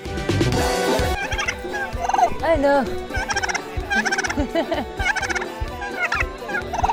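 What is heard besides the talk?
turkeys gobbling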